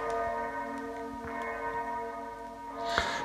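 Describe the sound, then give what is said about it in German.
A bell rings with sustained, layered metallic tones that hum and overlap, with a few brighter strikes and a sharp clang near the end; no one speaks. “Die Botschaft der Glocke ist vielfältig.”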